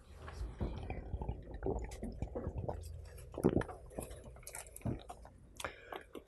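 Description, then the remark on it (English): Someone drinks water during a pause in a Bible teaching: a quiet, irregular run of wet sips, gulps and swallowing sounds, with soft clicks and bumps between them and no talking. “Water is very refreshing.”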